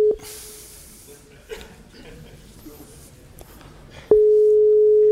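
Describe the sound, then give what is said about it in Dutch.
A telephone ringback tone from an outgoing call: a steady, single-pitched electronic tone sounds briefly, then returns loud about four seconds later, with faint murmuring voices in the background. “Ik ga hem nu bellen.”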